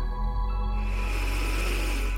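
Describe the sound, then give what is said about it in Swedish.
One long, deep breath drawn in through the nose during a breathing exercise, a steady airy rush that swells after a brief pause and holds to the end, with no talking. “Andas in igen.”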